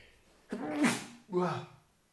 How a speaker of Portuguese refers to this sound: Aí, aqui eu vou espirrar. Esperem lá, esperem lá.